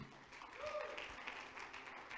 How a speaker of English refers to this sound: Go ahead, clap your hands to the Lord. He's worthy.